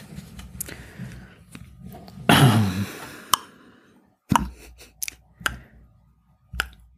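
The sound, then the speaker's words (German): Sharp taps at an uneven pace mimic a character's footsteps, made as a sound effect while a story is read aloud, with a short scraping rustle partway through. Quiet background between the taps and no talking. “Ist das eine Uhr oder? Nein, nein, nein, Speedy, Speedy geht Schritte”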